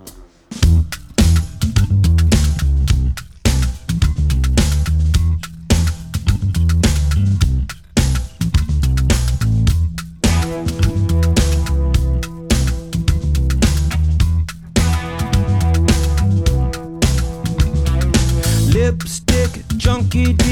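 A funk rock song plays loud and continuous, with a punchy, driving bass line and crisp, steady drums pushing a tight groove throughout, and no talking over it.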